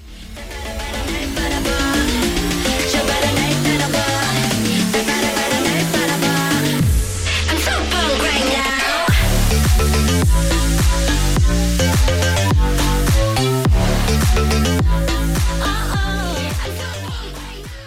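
A pop song is played on air, loud and full, with a driving beat and layered melody, pausing briefly for a rising sweep before the beat kicks back in. No one talks over it.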